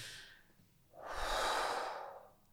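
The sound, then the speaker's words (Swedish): A deep, drawn-out breath in, airy, preceded by a shorter, softer intake; no talking, just the rushing hiss of air swelling and then fading. “och den saken jag vill tipsa er om idag det är att ta ett par extra djupa andetag.”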